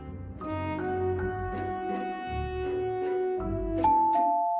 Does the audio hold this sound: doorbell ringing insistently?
yes